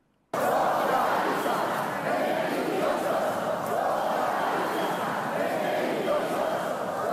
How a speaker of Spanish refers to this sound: han sido constantes los gritos contra los socialistas.